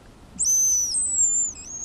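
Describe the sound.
A hazel grouse call imitated on a small whistle: a thin, very high drawn-out whistle that slides slightly downward, then a brief trailing note, heard alone.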